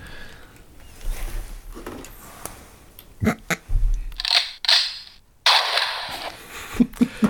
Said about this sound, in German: Wir haben sogar Publikum, das auf uns schießt. Das ist interessant.